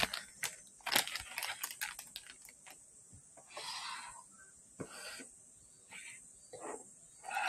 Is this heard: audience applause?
no